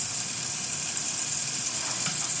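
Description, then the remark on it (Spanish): Eggs frying in a pan while breakfast is prepared in Stockholm, a steady, bright crackling sizzle that holds at an even level for the whole moment, with no voices over it. “Y ya pronto van a estar aquí los huevos de nuevo.”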